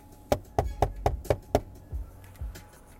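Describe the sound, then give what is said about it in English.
Six quick, evenly spaced, loud knocks rap out, imitating someone knocking at a door, followed by a couple of softer, slower taps with no talking. “Y'all know who at the door?”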